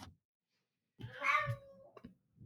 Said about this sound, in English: Do you hear my cat?